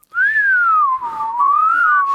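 A person whistles a single sustained, wavering tone that slides gently up and down in pitch, fairly loud, with no talking.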